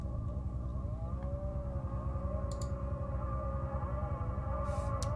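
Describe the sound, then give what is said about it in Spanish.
A chainsaw engine drones steadily throughout, a dense, loud buzzing rumble with a wavering higher whine riding over it. No one speaks. “Los ruedos de motosierra de fondo.”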